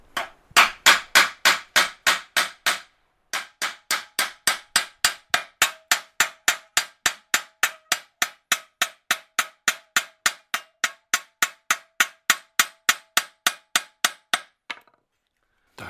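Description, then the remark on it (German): Dozens of rapid, evenly spaced hammer blows ring out on a thin metal blade, thinning the metal from the inner side of the blade out toward the cutting edge, each strike bright and clanging. A short pause comes after the first flurry, then the steady tapping continues. “führt das Sensorblatt so ein kleines bisschen hin und her, dass immer von der Innenseite vom Blatt nach außen, also zu der Schneide hin, so das Metall ausgedünnt wird.”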